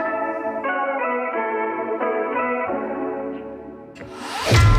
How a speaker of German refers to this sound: Wir hören daraus einen Song